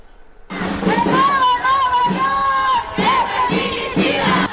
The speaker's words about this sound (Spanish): Así protestaron en Monterrey, México, colectivos de mujeres hartas por la desaparición de 18 mujeres.